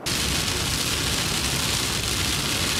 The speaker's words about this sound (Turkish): Çanakkale fırtınanın yanı sıra kuvvetli sağanak ve yağmurdan da nasibini aldı.